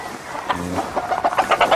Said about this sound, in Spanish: Precioso gallo. Son pollos muy jovencitos y bien hermosos están aquí. Las pollas están hermosas, las pollas, ¿eh?